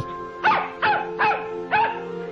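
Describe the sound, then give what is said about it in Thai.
A puppy yaps four times in quick, fairly even succession, each bark short and high-pitched, over a faint steady background hum; the puppy, led on a rope, has stopped to rest after travelling. “นายวานิชจูงลูกสุนัขเดินทางไปจนเหนื่อยก็หยุดพัก ลูกสุนัขนั้นก็ไม่ได้มีกริยาหวาดกลัวหรือคิดหลบหนีเลยแม้แต่น้อย”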